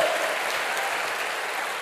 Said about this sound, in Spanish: Dele fuerte un aplauso. Dele fuerte ese aplauso a lo que Dios está diciendo.